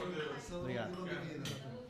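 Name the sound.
glasses clinking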